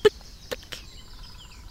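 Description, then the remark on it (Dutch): A great spotted woodpecker knocks on a tree: three dull, separate taps close by, spaced unevenly, with faint thin bird calls lingering in the background afterward. “maar ik hoor ook een specht. Hier is iets, iets aan het kloppen. Een vrij dof geklop.”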